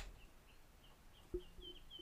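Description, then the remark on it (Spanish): A bird sings a series of short, high chirps at a steady pace, fairly faint against a soft background hum, with a brief low thump partway through. “Siento que me tengo que callar y dejar al pájaro cantar, sí, sí, Sí, yo creo que el pájaro quiere explicar algo”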